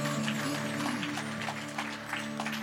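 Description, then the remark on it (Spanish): An audience at a Spanish-language church service applauds for the Lord in a steady, dense wash of clapping that holds at an even level throughout, with a low sustained keyboard-like tone humming underneath and no voices. “¿Por qué no damos un aplauso al Señor, hermanos, y continuemos alabando su nombre?”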